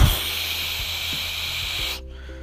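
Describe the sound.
A voice imitates a powerful hose spray with a loud, steady hissing rush lasting about two seconds, then stopping abruptly, leaving a faint low hum.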